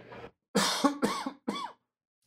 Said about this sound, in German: Ich muss mal kurz husten.